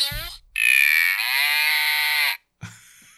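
A voice box taken out of a small stuffed toy cow lets out a tinny, buzzy electronic moo, one long drawn-out call with a brief lead-in, then a second moo starts after a short pause.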